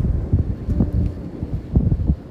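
Steady wind on a beach gusting against the microphone, a loud low rumbling roar that swells and dips in uneven pulses, with no voices present.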